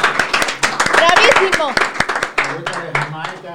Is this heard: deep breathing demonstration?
no